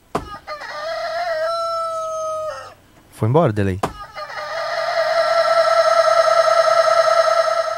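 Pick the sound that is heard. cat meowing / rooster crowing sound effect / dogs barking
rooster crowing sound effect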